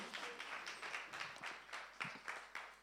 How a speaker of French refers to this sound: Bah, tu, peux, tu peux retourner, on peut les applaudir pour leur participation, merci.